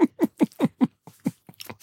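Close-up wet smacking of someone chewing with an open mouth, a quick steady run of moist clicks and squelches that briefly pauses, then resumes more irregularly. No talking.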